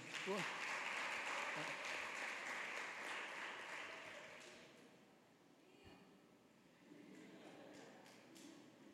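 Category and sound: crowd, audience applauding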